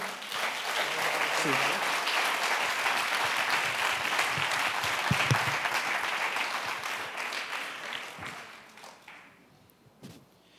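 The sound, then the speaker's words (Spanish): An audience breaks into sustained applause for the people being baptized that day, a dense wash of many hands clapping at steady volume for about eight seconds before thinning out and fading, with a few scattered claps at the end. “Regálales un aplauso, por favor.”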